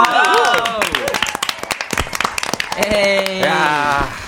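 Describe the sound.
A small group claps rapidly and unevenly for about four seconds to celebrate the release of a sixth mini album, while several voices whoop and call out excitedly over the applause, loudest at the start and again near the end.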